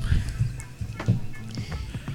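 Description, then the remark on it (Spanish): Quiet, irregular clicks and soft thumps of someone typing on a laptop keyboard, with a dull low rumble underneath and no one speaking. “Porque si oyen un teclado, es mi laptop.”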